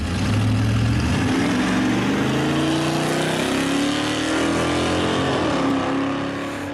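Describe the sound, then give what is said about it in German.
A loud, rumbling engine of a red two-door 1967 Dodge Charger coupé race car revs steadily up, its low harmonic growl climbing in pitch across several seconds, sustained with no talking. “Der fährt die Rennen ja mit seinem Dodge Charger von 1967.”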